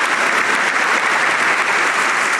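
A steady burst of applause from a crowd, dense clapping with a bright, hissy texture holding at an even loudness throughout, with no voices over it.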